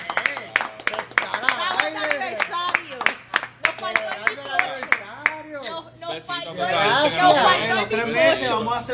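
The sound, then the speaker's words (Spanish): Sharp, scattered hand claps ring out over animated talking voices, then swell into denser, louder applause mixed with excited chatter toward the end, celebrating a group's first month. “Coño, hay que dar un aplauso y cumplimos nuestro primer”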